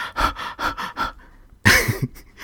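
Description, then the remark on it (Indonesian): A man pants heavily in quick, rhythmic breaths, about five harsh gasps, then a louder ragged gasp after a brief pause; his own voice performing a runner's breathless panting in place of a sound effect. “Ada suara orang lagi lari gitu ya ngos-ngosan”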